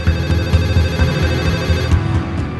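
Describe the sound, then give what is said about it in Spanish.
A telephone rings steadily and keeps ringing without being picked up as Río calls the Professor, with no one in the hangar to answer. The tone is loud and continuous over a dense, humming background, and no voices are heard. “Río coge el teléfono para llamar al profesor.”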